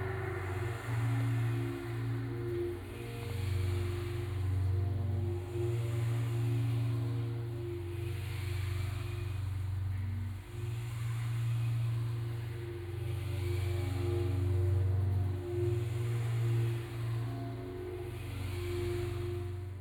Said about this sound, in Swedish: Det är kul att man, alltså jag har inte ens tänkt på att man kan höra eh, bilarna utanför mhm. också.